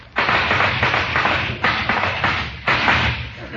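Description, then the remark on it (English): Horses' hoofbeats of a visitor arriving in a hurry pound in a quick, steady rhythm, loud, with a few sharper surges of clatter along the way and no voices. “Do I hear the sound of horses' hoofs?”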